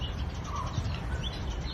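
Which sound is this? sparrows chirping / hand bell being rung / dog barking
sparrows chirping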